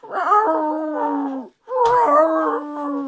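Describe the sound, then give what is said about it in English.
A person imitates the most common call of the howler monkeys heard along the Tortuguero River in Costa Rica: two long, sustained, droning howls with a brief pause between them, loud, with no other talk. “and I've been in Costa Rica, staying in the Tortuguero River and uh, El Rio Tortuguero, um, and there's all these howler monkeys everywhere, and they they make a variety of sounds, but th- the most common sound you'll hear them do is like a”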